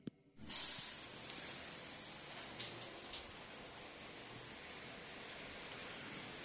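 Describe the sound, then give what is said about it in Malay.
Water suddenly bursts on and gushes steadily from a shower head in the farthest cubicle of a washroom, a loud continuous hissing spray that starts after a brief silence and keeps running without pause. “Ya, di cubicle yang paling hujung, bunyi curahan air menghubus keluar daripada pipe air tersebut.”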